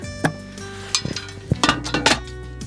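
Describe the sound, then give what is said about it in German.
A book is set back into a box and the lid shut: a series of sharp clunks and clicks, some ringing with a faint metallic tone, bunched into short irregular bursts, with no talking. “ja, dann wollen wir mal die Box wieder aufmachen. Das Buch wieder rein, schön ordentlich.”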